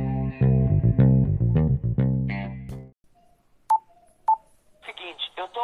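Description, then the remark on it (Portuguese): A short, punchy radio-style jingle plays for about three seconds, followed by two quick electronic beeps like phone keypad tones, and then voices start talking. “Solta a vinheta aí, meu boy”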